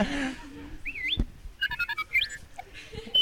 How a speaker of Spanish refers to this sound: Y tú veis pasando la página cada vez que Arturito sonaba.